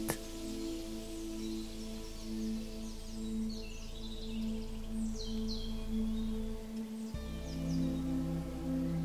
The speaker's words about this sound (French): Dans le ciel, vous ne les voyez pas, mais vous entendez de nombreux oiseaux. vous vous concentrez sur leur chant.